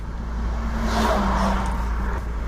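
car engine running

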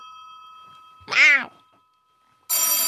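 cat meowing

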